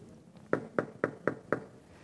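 Five firm knocks on a door in a quick, even rhythm, fairly loud against a quiet background, with no voices.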